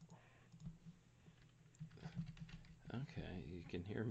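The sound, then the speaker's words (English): Quick bursts of keyboard typing, fairly quiet, clicking in an irregular patter as someone pulls up the Eastern Conference standings, before a person starts talking over the last second or so. “typing. I'm going to get the standings up there.”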